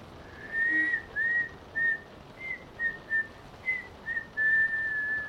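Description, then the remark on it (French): Someone whistles a simple melody in short, clear phrases with brief pauses between notes, moderately loud over a faint steady background hiss. “Effectivement, James Tête d'Orange en a vu d'autres et il siffle tranquillement sur le pont du bateau.”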